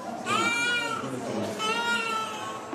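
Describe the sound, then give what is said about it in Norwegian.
Infants wail in loud, sustained, overlapping cries, one strained cry rising just after another, over a busy murmur of background noise, in a children's ward of Banadir hospital in Mogadishu, Somalia. “At spedbarn på en barneavdeling på et sykehus i Mogadishu gråter, er et godt tegn.”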